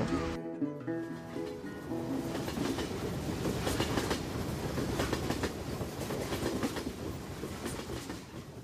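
train running on rails

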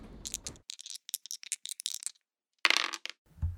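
dice being rolled

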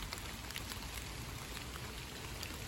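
rain falling

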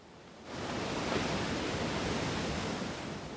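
stormy sea waves crashing

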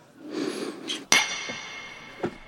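glasses clinking

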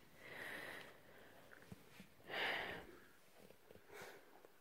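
nose sniffling

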